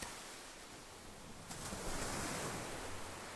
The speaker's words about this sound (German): Und du hörst den Wind Du hörst die Wellen rauschen.